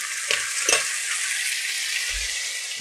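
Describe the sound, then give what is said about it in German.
Food sizzles steadily in a hot pan on an induction hob, a constant crackling hiss, with a couple of sharp scraping knocks early on as it is stirred and a soft low bump near the end. “Also es geht echt schnell, gerade wieder bei unserem coolen Induktionsherd, dass das anfängt zu braten, das ist richtig flott.”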